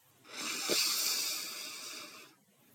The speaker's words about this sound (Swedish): Så jag kan visa hur du gör, hur det låter så du andas in djupt genom näsan.